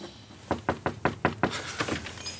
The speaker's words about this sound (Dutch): Is dit het? even kloppen.